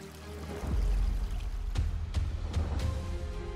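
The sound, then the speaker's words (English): A mountain stream rushes steadily and full, its low churning flow broken by a few brief splashy surges partway through. No voices are heard. “So much that he sometimes brings the scent of fresh pine and the tranquility of the mountain streams back to the office with him.”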